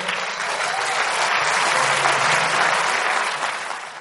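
Sustained audience applause at a convention, welcoming the speaker's wife, a dense wash of many hands clapping steadily and loudly for about four seconds before easing slightly at the end, with no voices standing out.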